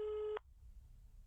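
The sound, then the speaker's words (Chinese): A steady electronic telephone tone, a ringback burst, sounds for about a third of a second and then cuts off sharply, leaving a faint low hum. “赶紧掏出手机拨了过去，电话那头响了一会儿，才慢慢的被接起。”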